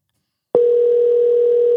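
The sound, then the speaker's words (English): A steady, loud telephone ringback tone on an outgoing call starts abruptly after a short silence and holds as one unbroken hum, with no voices present. “All right, let's see if this works. If he answers the phone,”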